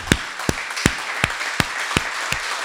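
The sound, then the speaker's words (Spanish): A crowd applauds steadily for God, a dense wash of clapping with sharp, louder claps popping out at an even, quick rhythm. Sustained, with no one talking over it. “pero si es para Dios, yo quiero aplaudir”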